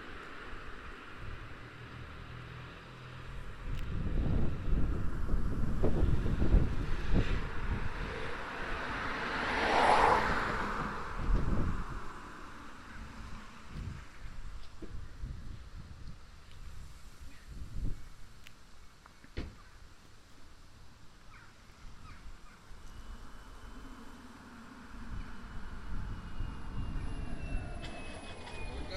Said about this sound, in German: Gut, dann machen wir das, das Ganze nochmal mit 50. Ich mache den Geräuschgenerator wieder an. Ja. Und es folgt die Vorbeifahrt mit 50.